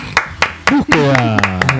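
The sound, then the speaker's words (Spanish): Sharp hand claps ring out at a steady rhythm, about four per second, while a voice speaks over the second half of the clapping. “Aplausos.”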